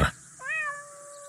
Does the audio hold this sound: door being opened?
no